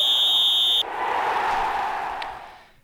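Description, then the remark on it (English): A single loud, shrill whistle blast opening the sports show Sport On on K103 Gothenburg Student Radio, lasting under a second and cutting off abruptly, followed by a broad wash of noise that slowly fades away. No one speaks. “Let's play ball! Whistle!”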